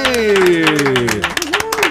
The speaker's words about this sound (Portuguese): Ontem, 16 de janeiro, a gente fez quatro meses no ar, ninguém lembrou. Por favor, uma salva de palmas aqui!